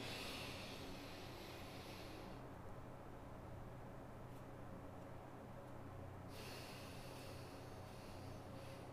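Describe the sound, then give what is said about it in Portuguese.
A long, airy inhale lasting about four seconds, followed by a quiet four-second pause of held breath, then a steady four-second exhale, demonstrating a breathing exercise. The breaths are fairly loud, with no talking. “Você vai fazer uma inspiração durante quatro segundos, Prender esse ar durante 4 segundos, aí não precisa ser mais abdominal não, tá bom?”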